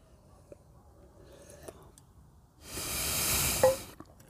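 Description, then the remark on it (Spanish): After a few quiet seconds, a single airy slurp of someone sipping coffee lasts about a second, with a faint clink or swallow near its end. No one speaks. “Cerdo de café. Les digo cerdo de café porque me, detengo un rato.”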